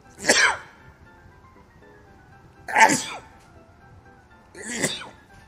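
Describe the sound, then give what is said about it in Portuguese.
Three sneezes in a row, evenly spaced about two seconds apart, each a sharp burst of air with a breathy voiced edge, with quiet pauses between them. “Ai, calma que eu tô espirrando.”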